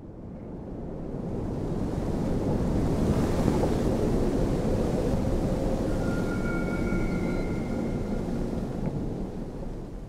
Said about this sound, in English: The stream is flowing fast and bringing with it tempting bits of detritus.